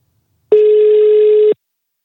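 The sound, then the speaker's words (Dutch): A single steady telephone tone, clear, holds for about one second and then cuts off cleanly, with silence on either side and no talking, as a telephone line is connected to begin a call. “Eh, ik ga de telefoon inprikken en eh, we gaan beginnen.”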